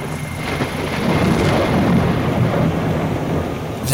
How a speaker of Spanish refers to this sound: el diluvio le agarró en la radio, en su turno, a mitad del programa.